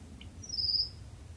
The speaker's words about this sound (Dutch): Maar let op wat deze nachtegaal doet. Dus een hele gewone nachtegaal. Strofe.